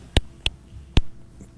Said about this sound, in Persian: متاسفم است که تلفنتون قطع شد